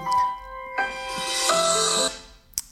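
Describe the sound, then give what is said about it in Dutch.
A mobile phone rings with a bright electronic melody that steps through several pitches for about two seconds, then cuts off, followed by a short sharp click. “En dan best is natuurlijk ook je telefoon uitzetten als je een podcast aan het opnemen bent.”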